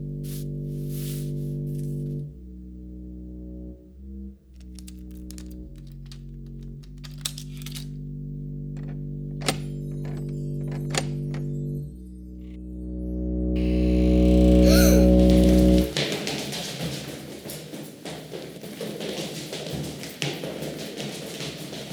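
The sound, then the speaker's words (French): Small footsteps of an old woman scrape along the floor as they creep slowly toward a door, in sparse, soft taps over a low, eerie drone, which swells into a loud, noisy rush near the end. “Tout à coup, on a tous entendu des petits bruits qui se sont approchés doucement de la porte en raclant le sol.”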